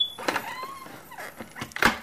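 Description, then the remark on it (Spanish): A window is pulled shut by Tinker Bell (Campanilla) in a Peter Pan story: a few scraping, rattling movements and a faint creak, ending in a sharper closing knock. Moderately loud, with no voices. “Cierra la ventana, Campanilla, rápido.”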